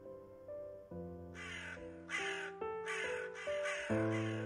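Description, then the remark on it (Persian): Crows caw in a rapid, repeated series of harsh calls that grow louder, layered over sustained piano notes playing a slow melody underneath. “صدای پیانو بالا میگرفت صدای کلاقه هم بالا میگرفت”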